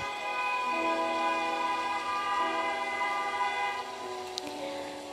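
Vehicle traffic noise with a loud, sustained horn blaring steadily for several seconds, its pitch shifting slightly, then a brief click near the end. No one speaks.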